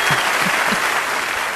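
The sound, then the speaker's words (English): Dense, steady applause from a concert audience in Russia, with many hands clapping together into a continuous bright wash of sound at an even, fairly loud level throughout. No voices. “Well, I don't know where the applause came from, but I'm sure it's uh, a concert uh, that uh, he uh, he did it in uh, Russia,”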